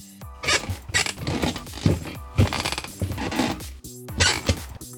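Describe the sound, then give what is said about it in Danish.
A person makes creaking noises with their voice, a run of short rasping creaks arriving roughly once a second, fairly loud and without any talking. “Du er jo med mig i dag, fordi du er begyndt at knirke, og jeg vil gerne høre dig først.”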